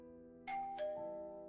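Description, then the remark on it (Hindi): A doorbell rings with a two-tone ding-dong chime, the bright strikes ringing out clearly over a steady low hum and fading slowly, with no voices. “दरवाजे की घंटी बजती है”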